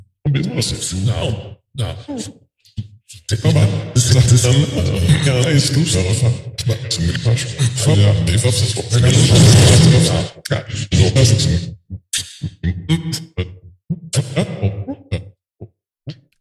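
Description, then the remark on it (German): A test speech recording loaded into a granular app, its controls being adjusted, is chopped into stuttering granular fragments and smeared with reverb and pitch effects, swelling into a dense, washy mass in the middle before breaking back into choppy bursts. “Ich habe da mal unseren Probe-Podcast reingeladen in diesen Fluss und habe da mal so ein bisschen an den Reglern gespielt”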